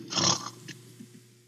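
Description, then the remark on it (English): A person imitates a snore: one loud, raspy, breathy snort, trailing into a few softer low rumbles. No words are spoken. “mm I, I, my wife could hear me snoring from 20 feet away.”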